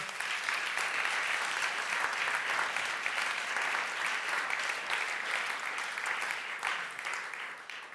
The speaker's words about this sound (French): Qui a plus de 80 ans ici au milieu de nous 80 ans, hein, quand même, 2, 3. Voilà. Je propose qu'on les applaudisse, nos aînés.